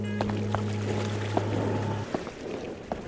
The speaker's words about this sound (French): Mais pourquoi on entend de l'eau Ça vient du musée, viens, il faut descendre les escaliers. Ah, c'est bizarre, plus on descend les marches, plus j'ai l'impression que le bruit de l'eau se rapproche.